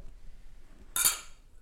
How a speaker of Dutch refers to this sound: En we gaan nog één keer deze avond de glazen heffen. En een laatste keer zeggen wij klinken.